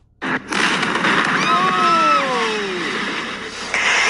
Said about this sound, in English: It's the video that's been seen around the world. An explosion at a house in Arlington, Virginia.